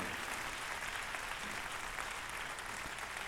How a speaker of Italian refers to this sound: Applausi.